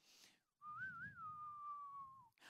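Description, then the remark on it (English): A single clear whistle carries a short, drawn-out Old West showdown melody, rising and wavering before sliding slowly downward, with no talking over it. “You have two guys, cowboys, that are about to face off and they're on a dusty road somewhere and they're about to draw their pistols, and then you hear the whistle, don't you? The whistle goes like this”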